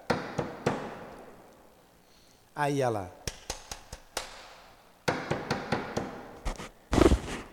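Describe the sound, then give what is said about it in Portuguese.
Sharp knocking raps, in a retelling of the Fox sisters' spirit raps answering Kate's hand-claps, come in irregular bursts of three or four quick strikes, with a short spoken phrase between the first groups and a heavier thump near the end. “Então começou a bater, ela batia palmas e a pancada.”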